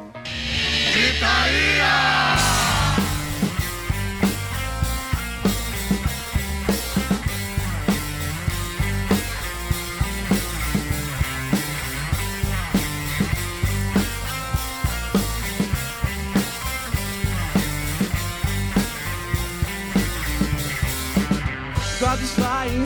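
A recorded rock song plays loudly and steadily on the radio program Gritaria, with dense full-band guitars and driving drums hitting a regular beat throughout, after a brief noisy swell at the start.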